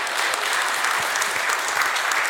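A crowd applauds steadily, many hands clapping in a dense, even wash of sound that stays at a constant level throughout, with no voices rising above it.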